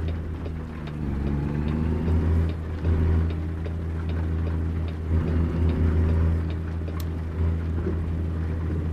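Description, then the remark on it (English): A heavy diesel engine of a simulated semi truck rumbles steadily with strong low harmonic drone, rising slightly in effort as the truck pulls away, loud with no talking. “Come on, truck.”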